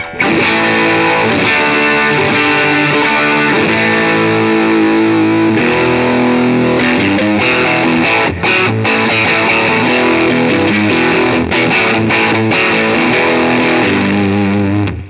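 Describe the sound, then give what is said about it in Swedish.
A heavily distorted electric guitar played through a high-gain amp with the gain set at three o'clock, loud, saturated and compressed throughout, with sustained fuzzy chords and a few brief stops, no voices. “Ja, den har ju lite mer gain än en vanlig tycker jag.”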